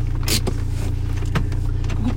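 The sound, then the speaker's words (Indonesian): A European car's power window whirs shut on its own inside the running vehicle, with a steady low engine hum underneath and a few soft clicks and thumps. “Bisa tutup sendiri anjing kalau mobil Eropa.”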